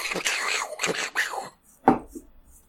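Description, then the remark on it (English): A person vocally mimics DJ turntable scratching: a run of quick, swishy rising and falling bursts, then a brief pause and one final sharp scratch. “Is that the DJ? Highly accurate.”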